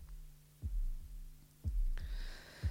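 A slow, deep heartbeat opening a music album thumps in a steady low rhythm, paired beats repeating about once a second over a faint hum, with a brief high shimmer rising near the end.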